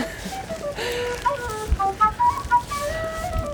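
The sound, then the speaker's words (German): A street musician plays a short, lilting melody of clear sustained notes on a flute outdoors in Hamburg, over a steady wash of street ambience. “Zu unserer Linken ein, ein Flötenspieler.”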